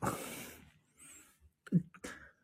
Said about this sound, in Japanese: 急に眠そうな声に。ちょっとでもね、眠くなってきた。あくびが出たの。